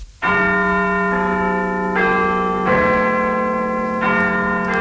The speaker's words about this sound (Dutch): Uh, may I suggest you have your town clock strike the hours? Ze willen de kerkklok horen.